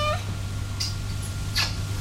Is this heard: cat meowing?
yes